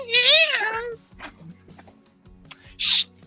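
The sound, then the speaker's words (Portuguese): A domestic cat named Gatos lets out one loud, drawn-out meow that bends up and down in pitch, followed by quieter shuffling noises and a short breathy burst near the end. “Ele mia fazendo drift também.”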